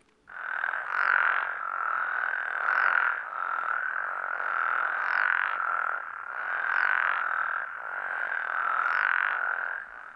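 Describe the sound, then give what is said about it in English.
A dense, continuous chorus of frogs calling together in a healthy chorusing pattern, a steady buzzing trill with periodic pulses roughly every second or two, loud, with no voices present. “And this is a spectrogram of what the frog chorusing looks like when it's in a very healthy pattern.”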